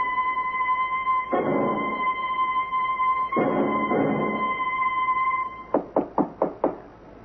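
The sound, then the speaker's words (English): Five sharp, evenly spaced knocks on a door ring out loudly near the end, following a steady electrical hum and bursts of rushing noise. “Ellie, uh, open up. It, it's me, …. Come on in. Door's open.”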